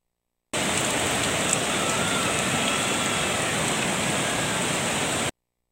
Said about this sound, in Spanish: Este tramo es en Petatlán, lo que usted estaba viendo. Así está el río crecido. No hay circulación para Cihuatanejo,